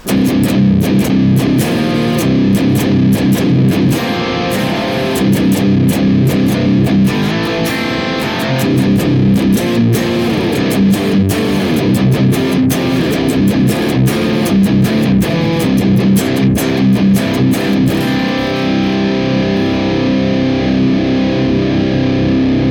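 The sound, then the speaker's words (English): A heavily distorted electric guitar, played through a Neural DSP Archetype Nolly in stereo with a drone green KT88 impulse response, plays loud, dense chugging riffs with sharp rhythmic attacks, sustained and continuous for the whole stretch with no voices. “DSP, Archetype Nolly, in stereo, says that it likes the drone green KT88 impulse response accordingly.”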